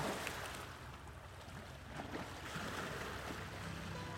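A steady, broad wash of ocean waves at the beach, rolling continuously with a soft rushing surge and some wind noise, moderately loud, with no voices.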